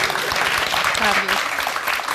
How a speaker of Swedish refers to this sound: Det är så här man får applåder,